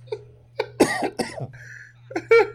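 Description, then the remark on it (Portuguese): Several loud coughs in quick succession, sharp bursts with a breathy rasp, over a low steady hum; a short pause, then another pair of coughs. “Deu até uma tossida aqui agora.”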